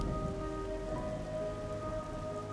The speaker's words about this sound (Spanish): La sombra de la ventana ya no se veía en la pared así que se animó a ver qué pasaba afuera. Nada, nada, solo la lluvia y sus luces.